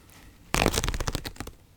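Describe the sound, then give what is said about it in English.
A piece of paper towel is torn off in a kitchen: a sudden crisp rip followed by a quick run of papery crackles that fades after about a second, with nothing else around it. “You go back into the kitchen and you tear off a piece of paper towel”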